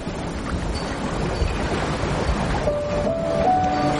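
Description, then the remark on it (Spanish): A steady, soft wash of calm open sea water beside a sailboat surrounds the listener, continuous and even, with a faint rising tonal whine near the end and no voices. “El mar está en calma.”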